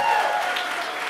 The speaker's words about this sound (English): How about a round of applause for Linda and her pick